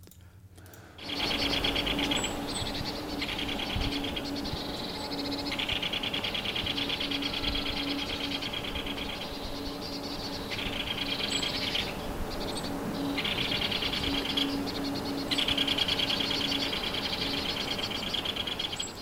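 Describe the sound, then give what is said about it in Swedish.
Harsh, drill-like alarm calls from quite a lot of tits buzz in repeated bursts for the whole stretch, loud, with other birds chirping faintly behind. “Också mesar, flera, ganska många mesar som var med i det här varnande.”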